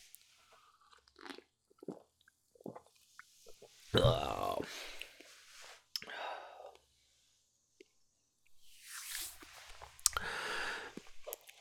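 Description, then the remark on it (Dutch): Slurping sips of a foamy, fizzy beer-like drink, with crackly bubbling and soft mouth noises in two louder bursts separated by quiet pauses. “ik ga gewoon eens een slokje nemen.”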